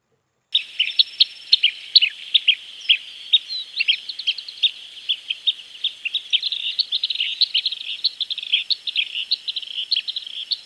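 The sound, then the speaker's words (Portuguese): Rapid, high chirping calls of a manuelzinho-da-crôa bird repeat continuously in a dense, fast rhythm, clear, with a faint steady insect-like buzz underneath and no talking. “O Manuelzinho não é mesmo de todos o passarinho lindo de mais amor?”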